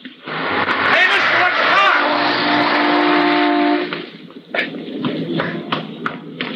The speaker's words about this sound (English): I thought sure you were going to get hit by that car.